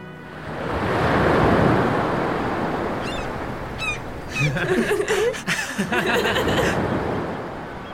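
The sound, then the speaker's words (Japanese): Steady surf washes onto a beach on the coast at Handa, a broad swelling roar that rises and holds, with a few faint bird-like chirps and soft voices or laughter briefly breaking through near the end. “今こうしてまた改めてふるさと半田の海を見つめているんです可愛いい教え子たちと連れ立って訪れた海岸は昔と変わらずに私を受け止めてくれているようです。”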